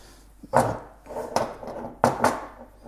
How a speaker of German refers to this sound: So, die Tassen. Also eine sehr große Küche, das hört man auch.